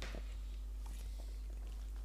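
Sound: smacking lips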